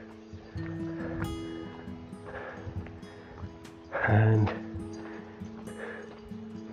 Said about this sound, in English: another water feature, or the sound of tumbling water anyway.